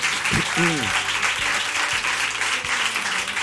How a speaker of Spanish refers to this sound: Gracias de verdad por estar con nosotros a todos. Un aplauso para ellos,